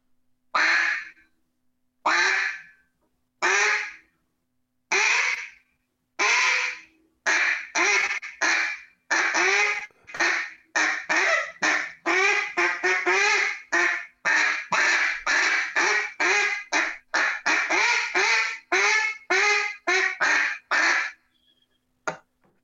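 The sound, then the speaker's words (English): A duck call blown in a long run of quacks going from low to high, starting with slow, spaced single quacks and speeding into rapid, overlapping bursts, loud with no talking. “give us some different variations of just the quack, please.”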